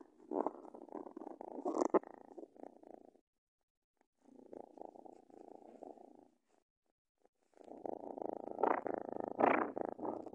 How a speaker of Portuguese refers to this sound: Mas primeiro, escuta-se ronronar.